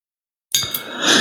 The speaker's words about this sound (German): Erstmal bitte hören, wir wollen mal hören, was unsere Bierflaschen sagen. Ich gebe mal eine Runde Bier aus. Prost, Leute. Prost.